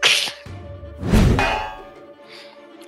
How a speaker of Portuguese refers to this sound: O, som do soco ressoa ali no metal do elmo, aquele metal grosso, e a cabeça do bicho afunda na areia mais um pouco, mais um pouco de areia jogada para os lados.